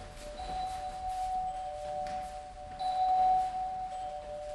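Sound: bell ringing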